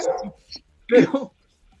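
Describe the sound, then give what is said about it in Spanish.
A dog barks a couple of times in quick succession, sharp, with a brief yip between the louder barks before it falls quiet. “Es verdad, si sienten algún ruido de, perros es porque alguno no les desbloqueó el mute”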